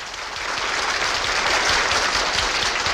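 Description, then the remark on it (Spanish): A large concert audience bursts into sustained applause as a Shostakovich symphony ends, a dense, steady roar of many hands clapping at once, holding loud and even throughout with no voices standing out. “La sinfonía de Shostakovich había terminado y Richard Kroll Richard Kroll sintió que caía en un vacío inmenso mientras estallaba una gran ovación.”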